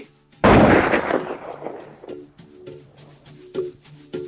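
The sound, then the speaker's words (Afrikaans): A single loud gunshot cracks out sharply and rolls off in a long, fading rumble, leaving faint bird calls and soft cooing in the background. “Hoekom skiet jy? Nee, maar maar skiet jy.”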